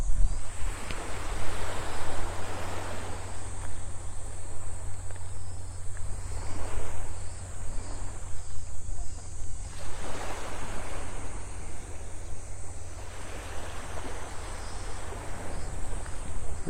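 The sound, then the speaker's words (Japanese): Morning ocean waves wash onto the seashore at Hayama, Japan, in slow, broad surges that rise and fall every few seconds, with a steady high insect-like hum and some low wind rumble underneath; no one speaks. “朝の波音とシトラスの風🍋〜葉山の海辺から”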